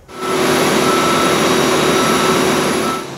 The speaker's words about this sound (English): The planes continue to arrive from Calgary to St. John's, the first doses of the Pfizer vaccine arriving direct from the manufacturer.